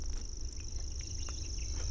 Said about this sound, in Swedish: Eh, men ja, åker man i maj, juni ner mm. längs med ån så mm. en sommarkväll mm. då man kan man höra kornknarr.